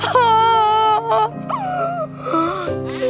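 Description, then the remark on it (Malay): A person wails and cries loudly in long, quavering, drawn-out moans with pitch swoops, continuous for about three seconds with no talking. “Yang yang ni pula ada suara orang menangis ni.”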